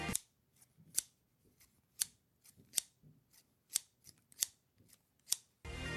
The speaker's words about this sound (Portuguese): Aí quando ele olha para trás, tá eu lá com a tesoura cortando o cabelo dele.